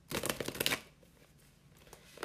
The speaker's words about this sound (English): do a little shuffle, put a little life into this deck, a little intention.